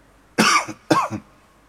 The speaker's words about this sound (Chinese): 啊，我有点咳嗽。